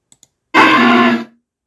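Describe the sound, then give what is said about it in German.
Two tiny clicks, then a loud, harsh, distorted electronic creature cry blares for under a second before cutting off sharply, like a video game monster's call. No one speaks. “und so klingt sein Ruf.”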